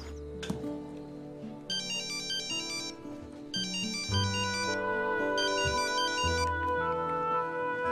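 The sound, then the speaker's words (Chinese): A telephone rings out on an outgoing call to the caller's father-in-law: three bursts of a bright, warbling electronic ring, separated by short pauses, over a steady bed of background music. Nobody speaks. “那行，那我给老丈人打个电话。”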